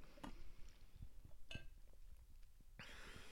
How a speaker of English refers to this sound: Okay, quick water break because I feel like I feel like I'm like clicking when I'm talking.